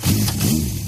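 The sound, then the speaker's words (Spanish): A 30-horsepower motorcycle engine on a motorway drones loudly, a steady buzzing roar with a slight wavering in pitch, heard on its own for under a second. “Cuando una moto de 30 caballos va por la autopista suena así”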